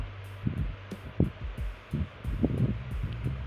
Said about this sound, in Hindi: फिर नज़र मेरी अचानक उस पर पड़ी धक से कलेजा मेरा धड़कने लगा